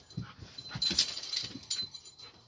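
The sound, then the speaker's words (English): A dog whimpers in a string of thin, high-pitched whines and breathy snuffles, fairly soft and continuous over a couple of seconds, with no one talking. “hey, puppy dog, how's it going?”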